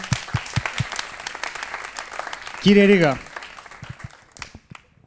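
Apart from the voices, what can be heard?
applause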